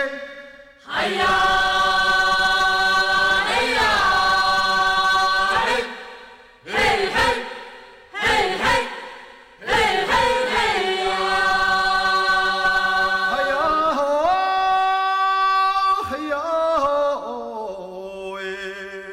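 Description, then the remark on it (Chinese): Traditional Amis group singing by the Yuan Dance troupe (元舞者): the ancestral origin song of the Amis Kiwit (奇美) tribe. A chorus of voices holds sustained, harmonized tones in long phrases, broken by a few short pauses and rising in pitch toward the end. Loud and steady, with no instruments. “刚刚听到的就元舞者他们在高唱的奇美部落阿美族的奇美部落的祖源之歌。”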